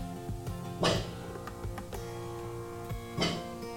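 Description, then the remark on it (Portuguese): A dog named Boris barks twice, a couple of seconds apart, each bark short and fairly loud, over a steady humming, tonal background with no talking. “Vai latir mais, Boris.”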